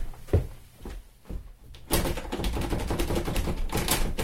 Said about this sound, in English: Bloody hell! The bloody door's jammed! Who designed this door?